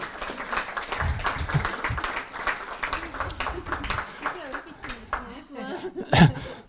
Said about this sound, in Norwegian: Hun fortjener en stor applaus.